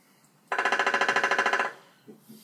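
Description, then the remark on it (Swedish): A three-toed woodpecker drums a single loud burst of about a second, roughly fifteen to twenty evenly spaced knocks in a steady, machine-gun-like rattle, then falls quiet apart from faint rustling. “Nu kommer väl Tretoa i hackspett.”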